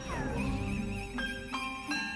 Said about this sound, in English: Christmas bells are nice.